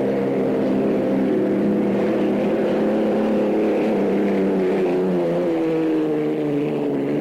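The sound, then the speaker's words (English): The Budweiser hydroplane racing boat's engine roars loud and steady, its deep droning tone sliding slightly in pitch as it thunders past. No voices are heard. “Uh, that, that noise you heard was the uh, the Budweiser.”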